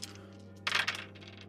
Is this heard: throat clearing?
no